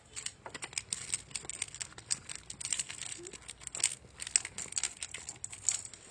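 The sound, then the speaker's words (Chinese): Cats crunch dry kibble, spooned from a storage box into their bowl, in a steady stream of crisp, irregular clicks and crackles, a busy texture with no pauses and no voices. “它们现在在吃饲料。”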